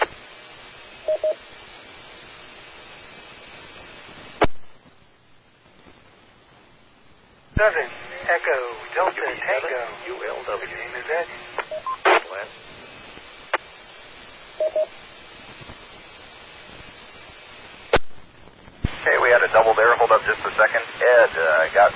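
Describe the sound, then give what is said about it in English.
Narrow, tinny amateur radio transmissions during a net check-in keep cutting in and out abruptly, the start of a call clipped off, with a hiss of static filling the gaps and garbled voices breaking through in short, choppy bursts. “you got clipped on the first part.”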